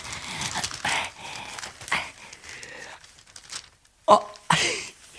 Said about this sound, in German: Die Zeitung lässt sich durchschieben.